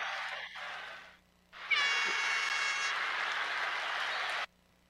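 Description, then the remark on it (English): A burst of clapping fades out, pauses briefly, then louder applause erupts with a whistle or cheer on top, holding steady for a few seconds before stopping abruptly; the applause honours two team members for 30 years of service with CMHA. “I want to make sure they got their applause for sure.”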